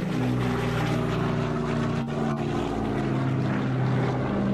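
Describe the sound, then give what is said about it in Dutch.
Steady, loud drone of the piston propeller engines of an Everts Air Douglas DC-6 airliner, operated from Anchorage since 1958, running continuously with strong low harmonic throb and a brief dip midway, with no voices. “Je oh, ziet een beetje fout, maar het is in ieder geval wel een propeller. Het is de, de DC-6 van eh, Everts Air.”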